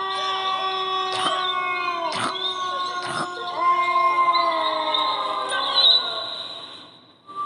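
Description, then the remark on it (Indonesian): Several wild dogs howl together in long, drawn-out, overlapping wails that slowly sink in pitch, sounding somewhat distant. Three sharp knocks cut through early on before the chorus fades out. “Suasana semakin mencekam ketika lagi-lagi mulai terdengar suara lolongan anjing hutan dari kejauhan.”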